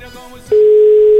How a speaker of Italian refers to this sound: Squilla. Dai, squilla.